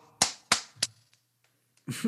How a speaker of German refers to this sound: Da klatscht man, nicht für die Pfleger.